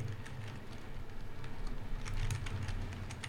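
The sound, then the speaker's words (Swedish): Rapid, irregular clicks of someone typing on a computer keyboard, with a steady low hum underneath and no voices. “Sorry, jag var bara tvungen att skriva en sak på tangentbordet.”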